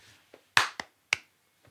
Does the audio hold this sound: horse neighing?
no